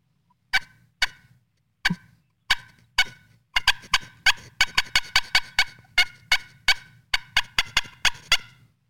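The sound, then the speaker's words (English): A turkey hen call, made on a hand-held call, sounds loud: a few spaced yelps, then a rapid, irregular run of sharp cutting notes, with no talking over it. “And that's basically 15 seconds of prep, grabbing the call, and I mean, you, we just made three completely different sounds for you.”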